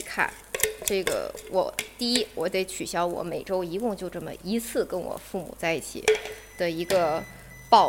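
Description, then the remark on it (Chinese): A baking tray clatters with a few sharp metallic clanks and scrapes, scattered irregularly beneath a man talking steadily throughout. “你们刚才听到的是我烤盘的声音，我不用在意。”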